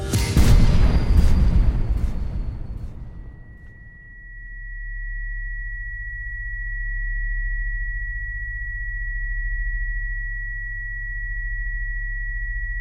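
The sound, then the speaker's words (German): A deafening firecracker blast booms at the start inside a tunnel, its bang amplified by the tunnel walls. It rolls away in a long echoing decay, leaving a steady high-pitched ringing tone over a low droning rumble. “Als der Böller explodiert, entsteht ein ohrenbetäubender Knall. Er wird noch durch die Tunnelwände zusätzlich verstärkt.”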